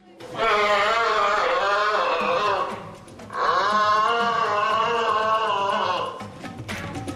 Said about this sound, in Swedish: Hur låter en giraff?